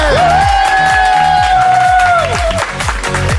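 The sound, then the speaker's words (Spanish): Loud applause and cheering fill the whole clip, with rhythmic clapping underneath and a long, high whoop or whistle that holds steady, then drops away near the end. “Cómo me gusta aplaudirme a mí mismo.”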